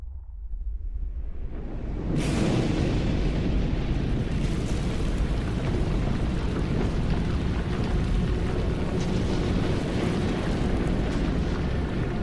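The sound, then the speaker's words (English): A volcanic eruption: a low, deep rumble builds for about two seconds, then a sudden explosive blast breaks into a loud, continuous roaring that churns on without letup. “So a group of farmers decided to climb a nearby mountain to see if they could see where the eruption was coming from.”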